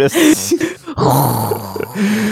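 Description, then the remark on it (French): A person imitates a flamethrower with their voice: a loud, rough roaring whoosh, first in short choppy bursts, then one long sustained blast of voiced, hissing breath. “bon, ça, c'était un bruit de lance-flamme, j'imagine. De feu, ouais, de gun de feu.”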